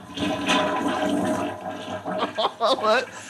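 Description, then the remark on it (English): A toilet flushes, a broad rushing gurgle of water that swirls for a couple of seconds before voices start talking over the tail end. “I just looked at a toilet flush sound effects.”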